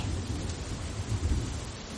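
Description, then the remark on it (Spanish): Heavy rain pours steadily as a deep, low rumble of thunder rolls underneath, swelling slightly midway before easing back into the dense downpour, during a storm on the way to Covadonga, Asturias. “Pero es de camino a Covadonga, durante una tormenta cuando nuestro protagonista se encuentra con un curioso personaje.”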